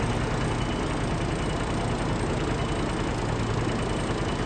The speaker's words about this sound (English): So I needed like a uh, an engine sound, an old prop engine. And I believe that this coming up is my lawnmower slowed down.